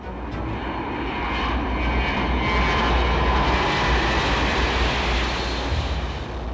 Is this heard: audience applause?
no